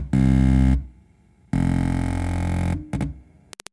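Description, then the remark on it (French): A loud, buzzy synthetic drone tone generated from the shape of a pine cone placed on a drone box, an electronic keyboard invented by Coca Nicoladze that makes sounds from the shape of objects, sounding in two sustained bursts with a gap between, followed by a short stutter and a few sharp clicks. “Ça par exemple, c'est le son d'une pomme de pin.”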